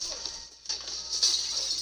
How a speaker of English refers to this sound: Oh, shit. He hella broke that door. There's no reason for that glass to break either.